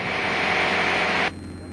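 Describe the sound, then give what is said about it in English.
A small airplane engine drones steadily during a short-field landing approach, a loud hissing roar over a low hum, then abruptly drops to a much quieter level near the end. No one speaks. “This time I decided to do a short field landing.”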